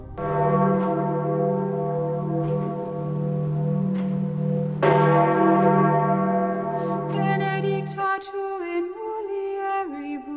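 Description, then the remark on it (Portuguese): The Jubilee bell in the gardens of Vatican City, about 15,000 kilograms, cast for the celebration of 2,000 years of Christianity, rings with a deep, sustained hum, struck again midway so its rich overtones swell, then a brighter peal of several bells takes over near the end. No one speaks. “Ainda na Europa, os jardins da Cidade do Vaticano abrigam o sino do jubileu.”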